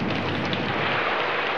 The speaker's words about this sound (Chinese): 暴风雨来了，很强的暴风雨。